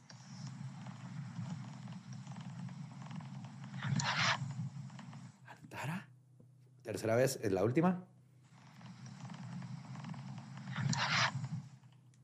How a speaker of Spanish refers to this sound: Les digo. Porque puse el oído aquí en el micrófono. ¿Oyeron? Se oye el gato y lo oye clarito como Antarja.